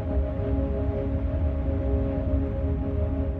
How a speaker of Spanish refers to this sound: En la presa, la cascada cae ferozmente.